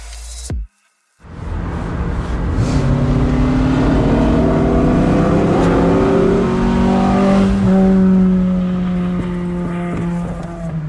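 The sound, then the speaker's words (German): A loud four-cylinder 02 car engine revs up steadily as it overtakes, its pitch climbing through the gears as it accelerates past, a throaty drone filling the whole recording after a brief silent gap at the start; recorded with a phone's dictation function. “Als der 02 mich überholt hat, habe ich den Lexus aber sowas von gar nicht mehr gehört. Hier, so hat sich das angehört.”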